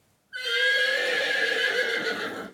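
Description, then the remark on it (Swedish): A group of voices from Brändö school imitates a horse's whinny in one loud, sustained, wavering neigh lasting about two seconds, then it cuts off abruptly, as a sound check before a quiz. “Ni är en, en eh, häst.”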